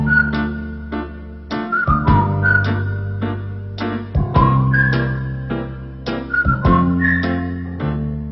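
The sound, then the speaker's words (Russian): A 1975 French pop song plays loud and clear, a bright whistled melody riding over steady bass and rhythmic accompaniment, with no one talking over it. “И вдруг в какой-то момент там звучит песня … «…».”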